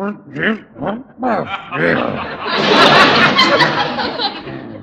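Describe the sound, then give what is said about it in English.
Loud, exaggerated snoring from a man asleep on a couch: a few short, throaty grunting snorts give way to a long, rough, rasping roar that fills the rest of the moment. “Gosh, this sounds like an angry sea lion. I think he's waking up. I thought it was a car backfiring.”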